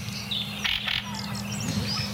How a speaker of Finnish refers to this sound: Ja räkättirastas korostaa itseään. Ja hetken kuluttua muuten yrittää vähän livertääkin. Mutta nyt tässä vielä tietysti hakee ja tasottelee.